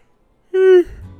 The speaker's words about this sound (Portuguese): Caralho. Hoje tá foda, hein? Peço perdão já. Peço desculpas aí, porque esse bocejo tá foda. Mas eu não vou editar, não.